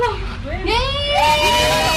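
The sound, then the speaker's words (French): Excited, high-pitched cries of surprise from several overlapping voices greeting a man returning home after 13 months in prison, at his parents' home in a suburb of East Jerusalem, with music playing; pitch sweeps up and down, loud and continuous over a low murmur of background noise. “Après 13 mois de prison, il fait son retour sous des cris de surprise.”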